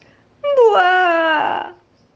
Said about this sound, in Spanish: Osofete creyó que el que lloraba era el oso que estaba dentro del espejo, pero no. Osofete se dio vuelta y vio que quien lloraba era, imagínense, ¿se imaginaron? Era una osa, una osa preciosa, hermosa, pomposa y maravillosa.